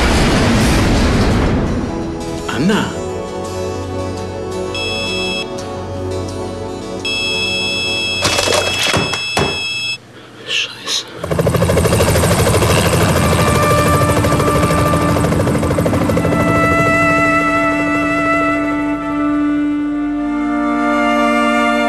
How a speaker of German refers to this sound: Auf Gleis 1 fährt in Kürze ein Güterzug durch. Zug hält nicht, bitte zurücktreten.